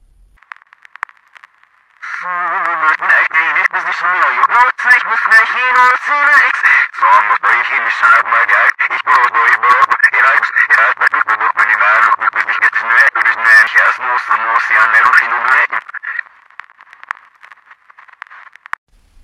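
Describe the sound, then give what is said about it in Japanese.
A car stereo radio plays a tinny, narrow-band broadcast with a voice-like, warbling tone for about fourteen seconds, fairly loud and steady, with faint static hiss before it starts and after it stops, as the car with its engine running is hurriedly driven off after rain and thunder have stopped. “急いで車を発進させ、来た道へと急ごうとすると、カーステレオからラジオの音が聞こえてきた。”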